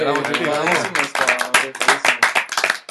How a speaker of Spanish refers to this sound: Yo creo que le damos un aplauso a estos camaradas